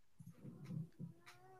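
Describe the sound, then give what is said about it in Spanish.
A pet cat, being shown by its owner, meows in a drawn-out, wavering cry that rises in pitch toward the end, fairly quiet and heard on its own without any talking. “Que han sacado sus gatitos y tú has dicho también, pues yo muestro mi gato, ¿no?”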